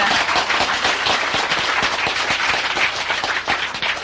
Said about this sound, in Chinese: 对的就鼓掌嘛，哎。怎么那么笨呢？听那么久也不会鼓掌，你不知道我喜欢人家鼓掌啊？